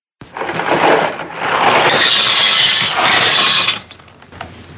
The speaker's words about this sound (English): Sorry, you're wrong. It's pouring pasta.